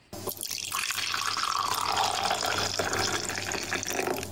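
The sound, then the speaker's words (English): Coffee pours steadily into a cup, a continuous liquid splash whose pitch rises gradually as the cup fills, fairly loud with no talking. “so as I was saying, the double double is where we read two of the top trending tweets in Canada, and we have a special sound effect for it because we're very professional and top notch.”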